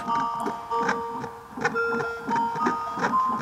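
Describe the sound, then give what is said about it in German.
A fetal heart monitor, made for babies still in the womb, plays a steady electronic warning melody of held, shifting tones because the heartbeat is too slow for a baby, layered over a regular muffled whooshing pulse; moderately loud, with no talking. “Ah, darum kommt die Melodie eigentlich ja. als Warnung.”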